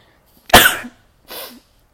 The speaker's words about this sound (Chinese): 不好意思，不好意思，大家，然后就是突然就是打一个喷嚏